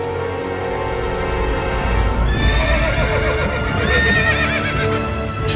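Horses abandoned by fleeing riders near the Bréfiac neigh loudly and repeatedly, their shrill whinnies rising and wavering over a low rumble, with faint hoof clops underneath and no voices.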